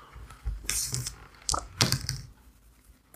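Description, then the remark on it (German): A hundred-sided die (W100) rolled during a tabletop role-playing game rattles and clatters across a hard surface: a burst of sharp, bright clicks and knocks over about two seconds, then it settles into quiet, landing on 82. No one speaks. “Und würfeln mal ein W100.”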